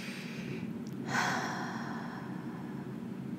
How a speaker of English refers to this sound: Breathing deep into the body so that your belly kind of expands on the inhale. That's how deep you want to breathe. And every time you exhale, you can make a little noise just to be intentional.